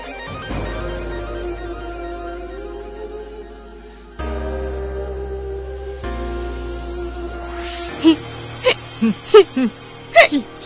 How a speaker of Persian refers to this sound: چه سکسکه کنه شما دوتا